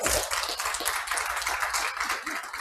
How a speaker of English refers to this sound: How many of you just glad to be here in the house of God? Give God a hand clap of praise.